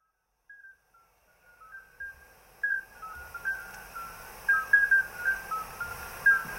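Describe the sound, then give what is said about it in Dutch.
Several short, clear bell-like whistles, calls of midwife toads, repeat at irregular intervals over a faint outdoor background at a pond in Borgloon, Limburg province, some overlapping as if from more than one animal. “Ik kende, en dat is het geluid van de voetmeester, ja.”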